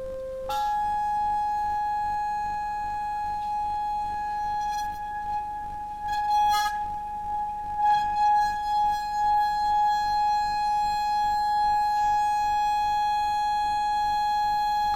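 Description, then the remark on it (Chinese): A loud, steady electronic tone drives a vibrating plate scattered with experiment particles, its frequency being raised to change the pattern. It jumps higher in pitch right at the start, then holds a bright, buzzy hum with faint rattles partway through. “我们继续调高频率，看看花纹还会变。”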